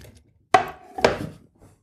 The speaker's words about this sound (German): Ich habe ja so einen schönen ähm, Mixer, Häcksler und da kommt jetzt äh, nacheinander rein. Möhrengrün.